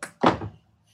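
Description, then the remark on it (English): A short wooden thunk of a door down a hallway being worked open, a quick click followed by a heavier knock that fades within half a second, with no voices. “I, I walk past him and go open the door that's uh, down the hallway”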